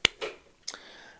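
Three quick, sharp knocks and scrapes against a door as a cat paws and pushes at it, trying to get into the room, with a brief rattling tail and no voices.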